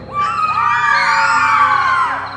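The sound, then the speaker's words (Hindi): A crowd of children and women scream in panic, many high shrill voices overlapping in a loud, continuous wail that swells and holds for a couple of seconds, as they hide here and there while shopkeepers flee their shops in a village. “खूनखार भयानक रात काला को देख दुकानदार दुकानें छोड़कर भाग जाते बच्चे और औरतें चीखते हुए यहां वहां दुबक जाते”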